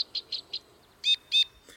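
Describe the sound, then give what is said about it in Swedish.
Flight calls of a migrating two-barred crossbill: a quick series of four dry, high chips followed by two louder, nasal, toy-trumpet-like notes, with a short faint note at the end, clear against quiet background. “ett av de lätena som jag tycker om bäst eh, hos flyttande fåglar, eller när man lyssnar på flyttande fåglar och deras lockläten, är ju just bändelkorsnäbben.”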